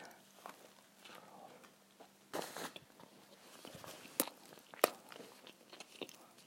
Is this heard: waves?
no